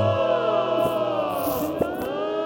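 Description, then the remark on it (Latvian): Layered choir voices, created by artificial intelligence from an analysis of choir singing, hold long sustained chords. They form a smooth continuous wash of sound at steady volume with slight shifts in pitch, and no one speaks over it. “Jā, un tās, tās balsis, kas ir fonā, tās ir radītas ar kaut kādu mākslīgo intelektu, analizējot uh, koru dziedājums un ko tur vēl ne.”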